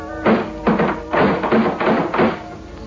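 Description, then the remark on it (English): About six firm knocks on a locked gate, fairly loud, falling in an uneven rhythm of pairs and single raps, with brief quiet gaps between them and no voices. “I knocked again.”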